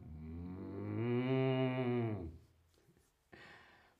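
A calf gives one long, loud moo lasting about two seconds, strongly voiced, followed by quiet and a soft, breathy rustle near the end.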